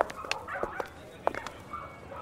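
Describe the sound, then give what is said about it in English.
Several short, sharp dog barks in a pet store come in an irregular burst over about two seconds, fairly soft against a steady background hum, with no one speaking. “Here's the pet store. Let's check in here.”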